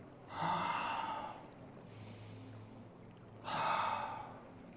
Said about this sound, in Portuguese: Respire e inspire três vezes, respirando pelo nariz e soltando o ar pela boca.